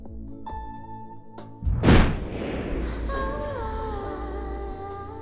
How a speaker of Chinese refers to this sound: 远处有了炮声，在很远很远的地方，但是却清清楚楚的是炮声。